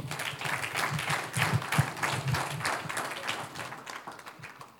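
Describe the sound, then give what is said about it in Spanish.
A crowd applauds the Lord during preaching, steadily for several seconds, a dense wash of many hands clapping at once, fairly loud and continuous, with a faint murmur of voices underneath. “Un aplauso al Señor.”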